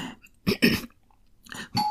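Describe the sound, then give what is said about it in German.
A few short, sharp bursts of noise, followed near the end by a clear sustained tone like a doorbell chime starting to ring as visitors arrive at a late hour, moderately loud with no one speaking. “Oh, es klingelt.”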